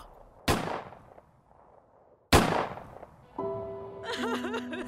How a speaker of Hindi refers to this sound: किसी ने उनके बेटे को चार गोलियां मार के उसका मर्डर कर दिया था